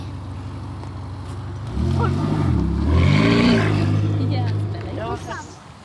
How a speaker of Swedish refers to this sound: När Ferrari-vrålen har tystnat en aning har vi samlat US Syds styrelse, i alla fall tre personer.